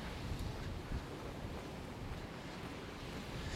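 Steady wind buffets the microphone over a continuous wash of sea surf at a beach on a cold, rainy July day, a dense, rumbling roar at constant loudness with no voices.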